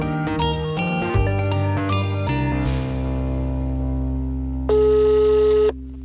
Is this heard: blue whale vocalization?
no